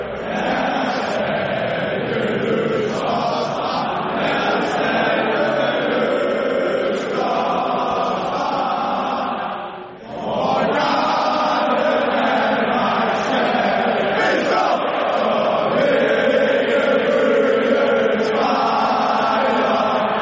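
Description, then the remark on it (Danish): A huge stadium crowd and the players sing the Danish national anthem together before a European Championship football match between Denmark and Finland at Parken, a loud, sustained wall of massed voices carrying the melody, briefly dipping between phrases before swelling again. “Duetten mellem spillere og publikum i perfekt symbiose og harmoni.”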